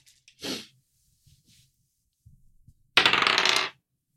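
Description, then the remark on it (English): A ten-sided die is rolled across a hard surface: a short rattle, a few soft taps, then a loud, rapid rolling clatter that stops abruptly. No one speaks. “Uh, I will follow you in the one d10 situation.”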